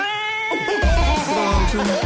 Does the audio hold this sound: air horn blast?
no